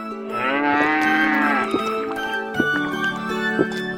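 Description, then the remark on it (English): A cow lets out a long, loud, low moo that swells and holds, then trails into a lower, steadier drone broken by a few faint clicks. “cow gave her lots of sweet milk to drink.”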